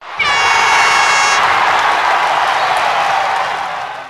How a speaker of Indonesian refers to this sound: Tepuk tangan dulu.